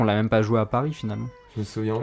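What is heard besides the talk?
cat meowing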